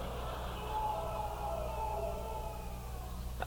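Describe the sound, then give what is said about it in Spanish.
A person imitates the Tarzan yell: a sustained, warbling cry that wavers up and down in pitch for a few seconds, fairly loud over a steady low background hum. “Ese es de Tarzán. Es el grito de Tarzán.”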